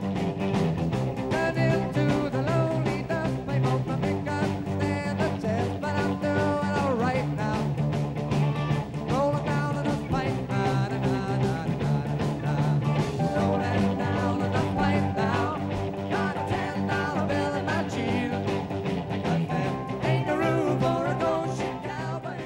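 A rock song plays steadily throughout, with driving drums and layered guitars and vocals forming a dense, loud full-band sound that never drops out, and no speech over it.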